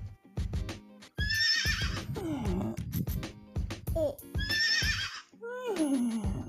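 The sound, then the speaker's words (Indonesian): A person imitates a horse neighing, producing two high, quavering whinnies that slide downward, separated by breathy huffs and low snorting sounds, loud. “Kuda, kuda.”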